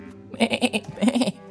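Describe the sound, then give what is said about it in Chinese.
A goat bleats twice in quick succession, each call a wavering, tremulous cry broken into rapid pulses, moderately loud and heard alone with no talking. “于是公鸡带着小猪、农妇还有农夫一起去问看看山羊。”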